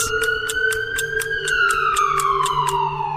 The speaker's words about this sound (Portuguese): O som da sirene anuncia a uma corrida contra o tempo para salvar vidas.